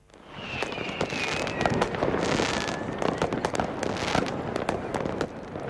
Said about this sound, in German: Und zum 1. August gehören immer auch Feuerwerke dazu.